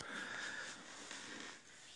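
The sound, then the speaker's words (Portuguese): Heavy, labored breathing of a person walking while recording, a continuous wheezy rasp with airy hiss filling the whole clip, steady and uninterrupted, with no talking. “Eu estou gravando e caminhando. Vou sentar um pouco para minha respiração ficar um pouco melhor.”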